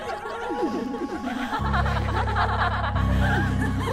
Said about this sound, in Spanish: Empiezas a escuchar cada vez más claras las risas, pero no sabes de dónde vienen. Son risas burlescas, como de gente, como si estuviese, no sé, una fiesta. Muchas risas femeninas.